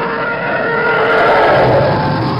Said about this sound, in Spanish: Para los TIE Fighter dicen que es en realidad Goldstein despertándose y desperezándose a la mañana, pero la realidad es que es el bramido de un elefante alterado